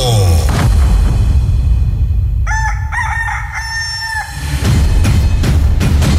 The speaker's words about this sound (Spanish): Ya llegó, ya está aquí nuestro gallo. Su gallo. El gallo de la radio.